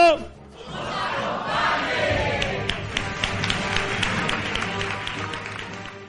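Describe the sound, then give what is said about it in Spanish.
A live audience at a radio programme's 400th show shouts a loud farewell together, meant to be heard on the radio, a sustained roar of many voices with scattered claps and cheers running through it for several seconds. “Y ahora me ayudáis todos a despedir. Bien alto y bien fuerte para que se oiga por la radio.”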